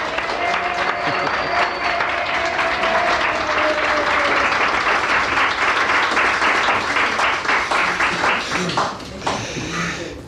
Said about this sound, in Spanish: Así que, bueno, yo creo que valdría la pena aplaudirles por estar aquí con nosotros, nosotros a ellos. Pues sí, venga, vamos a ellos. Gracias.